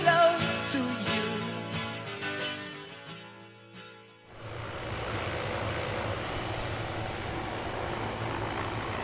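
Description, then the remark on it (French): A red helicopter's droning engine and rotor thump build as it circles overhead a few times, then give way abruptly to a loud, steady roar of rushing wind and turbine noise as it lands in the neighbouring cove. “Il y a un hélicoptère qui vient de se poser dans la crique à côté, après avoir fait quelques tours au-dessus de nous.”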